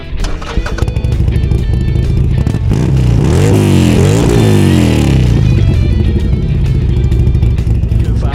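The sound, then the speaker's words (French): An XR 1200 motorcycle engine roars loudly and continuously, its pitch climbing and falling as it revs hard several times in the middle, with a rough mechanical rattle underneath. “Faites gentlemen, start your engine.”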